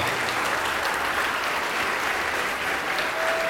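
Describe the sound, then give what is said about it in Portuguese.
A large crowd at a church service claps steadily and continuously in the name of Jesus, a dense wash of applause at a strong, even level from start to finish with no voices standing out. “Quem ergueu a mão, vem para cá, vamos aplaudir ao nome de Jesus, vem para cá.”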